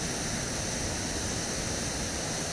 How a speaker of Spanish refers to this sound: Puedo sentir cómo me voy con esta agua fluyendo por cada vibración que mi cuerpo representa agua.